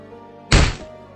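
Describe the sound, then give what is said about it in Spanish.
A chair, knocked over in a tavern as a man jumps to his feet, tips over and hits the floor with a single loud, heavy thunk that rings out briefly before fading, with no voices around it. “y de un salto se puso en pie tirando la silla que había estado usando.”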